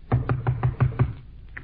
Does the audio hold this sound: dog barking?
no